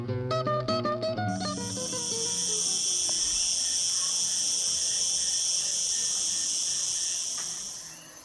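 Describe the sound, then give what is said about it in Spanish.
A loud, continuous buzz of a cicada (order Hemiptera) drones steadily for several seconds after a brief stretch of plucked musical notes at the start, then fades slightly at the end. “La Cigarra Conocida también como chicharra, pertenece al orden taxonómico Hemiptera.”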